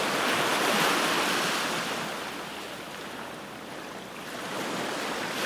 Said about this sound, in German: Ja, aber die Wellen werde ich jetzt schon mal begrüßen. Das ist ja wie eine Melodie, also wie ein Hit, den man immer wieder hören muss.